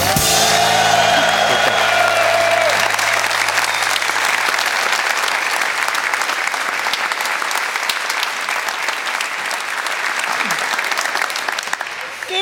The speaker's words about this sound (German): das wird schwierig heute mit dem Applaus für dich, aber wir versuchen es.